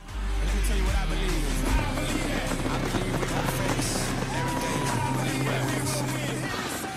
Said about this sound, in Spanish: en Delaware, cerca de su casa, Biden pudo después recibir un poco del calor de sus simpatizantes que lo esperaban en sus autos sonando las bocinas y guardando la necesaria distancia social